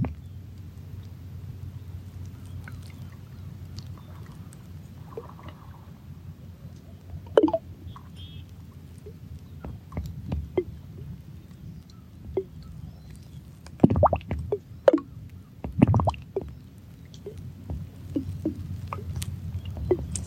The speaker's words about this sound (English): Remembering all the variations of water sounds.